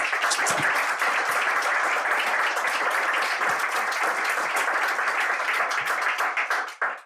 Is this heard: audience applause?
yes